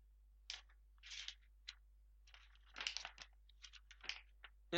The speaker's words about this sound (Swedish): jag ska bläddra lite grann.